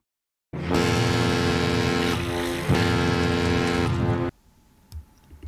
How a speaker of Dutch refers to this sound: Maar het is in ieder geval een boot. Ja, het klinkt wel eh, iets bootachtigs,